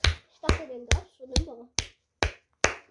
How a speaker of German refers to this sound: Applaus.